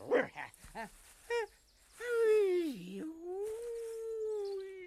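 A dog gives a few short, sharp barks, then breaks into a long, wavering howl that rises and falls and holds for several seconds, loud.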